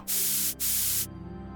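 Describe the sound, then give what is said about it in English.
Two hissing blasts from an aerosol spray paint can, each about half a second long with a brief gap between, loud, then a faint low hum remains. “spray painting Satanist symbols on the walls afterwards.”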